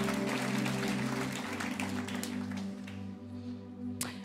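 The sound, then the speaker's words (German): An audience claps steadily for God, a dense wash of many hands over a sustained low musical drone, the applause gradually thinning toward the end. “Lasst uns Gott noch einen riesen Applaus geben.”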